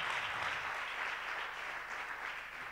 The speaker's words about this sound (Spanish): Eso se merecía un poderoso aplauso.